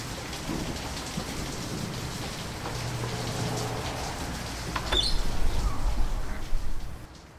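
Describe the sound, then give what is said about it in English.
Heavy rain pours steadily outdoors by the museum entrance at the City Museum and Art Gallery, bad enough to call off a walk, a dense continuous hiss of drops with low rumbling underneath, growing louder and more intense toward the end before easing slightly. “Well, I can tell you now that the rest of the walk's been called off uh, because the weather's so bad.”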